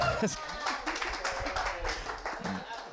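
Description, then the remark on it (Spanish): A crowd applauds the Nicomedes Guzmán library for about three seconds, a dense, steady patter of many hands clapping, with voices calling out over the noise. “Un aplauso para Nicomedes, biblioteca con Guzmán.”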